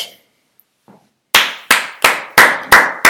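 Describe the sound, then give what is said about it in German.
Applause from a single pair of hands: six loud, crisp claps in a steady, even rhythm, each ringing briefly, following a quiet pause. “Den Applaus danke, kriegst du danke. von mir.”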